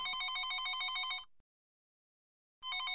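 A telephone rings loudly and clearly, one bright ring burst, then about a second of silence before the next ring begins. No voices are present.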